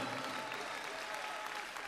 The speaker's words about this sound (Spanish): Dele fuerza, fuerte ese aplauso al Señor, hermano.